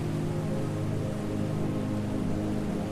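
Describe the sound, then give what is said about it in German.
A steady, roaring rush of a torrential river fed by glacier meltwater fills the scene, a dense and continuous wash of noise with a deep rumble underneath, loud, with no voices. “Aus der allumfassenden Stille des Eisfeldes wird ein tosendes Rauschen.”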